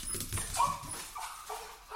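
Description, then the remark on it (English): A dog whimpers in a series of thin, high whines, several short cries following one another closely, moderately loud against a faint background rustle, as boys in an alleyway hold the squirming dog between them. “Teresa heard a whimpering, and the unkind laughter of the boys”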